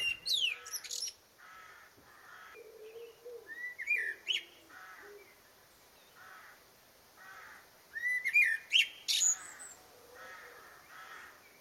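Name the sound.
blackbird song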